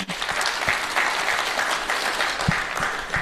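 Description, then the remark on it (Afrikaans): A crowd claps steadily for the organisation Choose Life, a dense rush of overlapping handclaps sustained at an even level for the whole few seconds with no voices over it. “So kom ons gee vir Choose Life ook sommer 'n lekker hande klap.”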